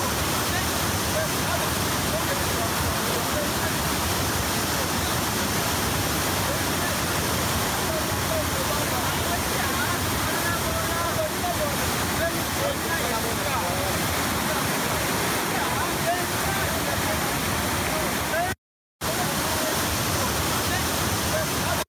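A deafening, steady rush of water as the Nile pours out of Lake Victoria in Uganda, a dense roar filling every pitch without a break, loud for the whole stretch apart from one brief cut.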